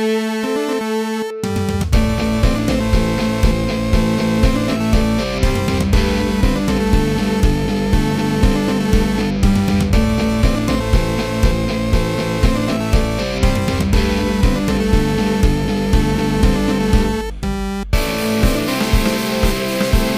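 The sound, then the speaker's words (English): An upbeat instrumental theme tune plays loud and steady, with a driving rhythmic beat, bright layered melody and punchy bass, briefly dropping out near the start and again shortly before the end. “Theme song. Theme song.”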